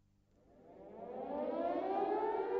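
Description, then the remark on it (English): An air raid siren at Peenemünde, late in the evening of 17 August 1943, winds up from a low growl into a loud, rising wail, its tone climbing steadily and swelling in volume. No voices are heard. “Late in the evening, on the 17th of August 1943, the air raid sirens at Peenemünde began to sound.”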